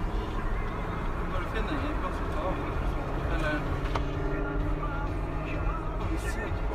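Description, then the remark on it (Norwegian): A steady, continuous engine rumble and road noise from inside a moving car being driven while it leaks and its engine temperature climbs, with faint indistinct voices in the background. “Jeg kan prøve å kjøre og se hvordan det føles.”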